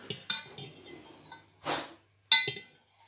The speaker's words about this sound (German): weil sonst, wenn mein Bruder so lange umrührt, also wenn du jetzt so lange rührst ans dann, ja, dann geht die ganze Kohlensäure raus.